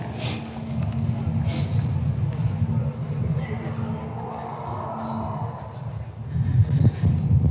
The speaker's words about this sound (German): Es ist gerade wieder sehr windig auf der Gloriette oben. Warte mal, bleiben wir mal kurz da stehen.